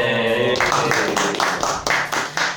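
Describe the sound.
A short vocal sound gives way to steady, rhythmic hand clapping celebrating a marriage this year, about seven or eight loud, sharp claps at an even pace, with voices faintly underneath.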